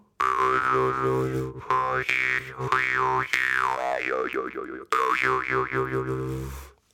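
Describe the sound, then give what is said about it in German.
A hand-forged jaw harp with an earthy sound twangs steadily with a low droning buzz, its overtones swooping and warbling in quick wah-like waves, played loud for several seconds with brief breaks. “schmiedet halt äh, wunderschöne, von der Optik her wunderschöne Maultrommeln und die haben so einen ganz erdischen Sound. Soll ich mal anspielen?”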